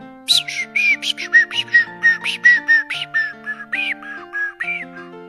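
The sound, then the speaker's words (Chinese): Small birds high in the treetops chirp in a quick, steady stream of short, bright calls, about fifteen in five seconds, over soft sustained musical tones underneath. “高高的树梢上，小鸟们叽叽喳喳地叫个不停。”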